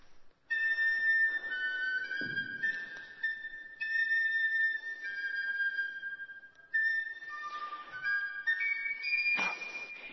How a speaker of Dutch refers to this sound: hij probeert het nog eens. Toonladdertje. Twee noten al kwijt. Het was zo mooi begonnen met zeven van die leuke mooie noten op zijn fluit. Maar het zijn er nu nog maar vijf.